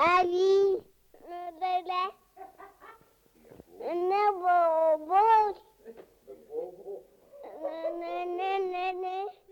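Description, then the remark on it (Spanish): A baby girl babbles and coos in a series of drawn-out, sing-song vocal bursts separated by short pauses, fairly loud, with no clear words, recorded by her father on a mono Nauta cassette player. “Esta soy yo, no sé hablar todavía. Emito sonidos intencionadamente, pero apenas articulo palabras.”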